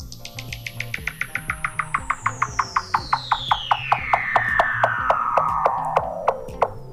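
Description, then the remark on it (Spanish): A Weddell seal's underwater call: a long, eerie whistle gliding steadily downward for several seconds, threaded with rapid, evenly spaced pulses, loud and clear over a soft, low rhythmic musical backing. “Ese sonido es en realidad una foca de Wedel.”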